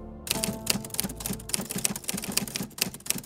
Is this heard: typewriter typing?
yes